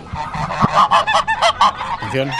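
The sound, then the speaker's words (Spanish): Hens clucking and cackling, a quick run of loud, throaty squawks tumbling one after another, ending with a lower drawn-out call, with no one speaking. “¿Qué hacemos con las gallinas de Florentino?”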